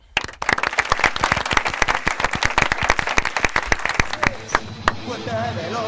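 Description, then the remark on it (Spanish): A studio audience gives a farewell applause for a departing guest, breaking into loud, rapid clapping, dense with sharp individual claps standing out, fading toward the end as faint chatter and a tonal sound emerge. “De momento, tenemos en nuestro programa al despedirte con este bolivariano aplauso.”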